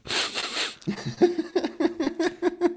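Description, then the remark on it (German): A man breathes heavily, snorting through the nose: a long, loud hissing intake, then a rapid run of rough, buzzy snorts in a steady rhythm, with no talking. “Ey, ich schnaufe echt wie ein Tier.”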